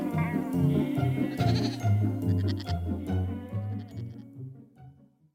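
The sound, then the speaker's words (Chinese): Several sheep tended by a young shepherd boy bleat in a steady, overlapping chorus, their wavering, quavering calls rising and falling for about five seconds before thinning out and fading at the end. “一个人放羊要小心，要是有狼来吃羊了，千万记得大声喊。”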